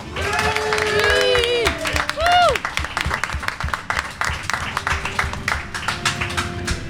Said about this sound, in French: Je crois que c'était là les applaudissements.